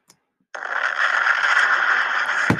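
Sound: playing cards being shuffled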